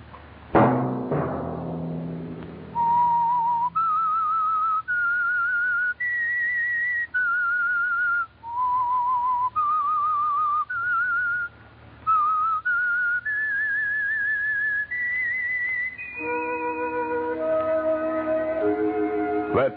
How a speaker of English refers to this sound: That whistle be your signal for the Signal Oil program, The Whistler.